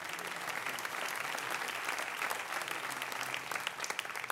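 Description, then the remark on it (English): A church audience claps its hands in steady, dense applause for several seconds, many overlapping sharp claps forming a continuous wash of sound, with a few louder individual claps standing out near the end. “Clap your hands if you're excited about that.”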